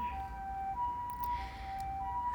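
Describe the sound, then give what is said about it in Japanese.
An ambulance siren wails steadily, its two-tone pitch alternating back and forth, as it passes outside, with low traffic rumble underneath and no talking. “めっちゃ救急車。”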